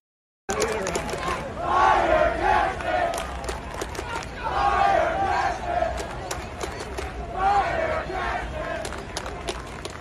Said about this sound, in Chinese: 活动当天呢，在现场右外野集结呃的那一区啊，是有几个人站起来带领大家喊口号。